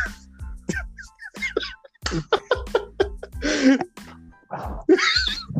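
A sharp sneeze bursts out among short breathy vocal sounds and snorts, with a second noisy exhale-like burst following near the end.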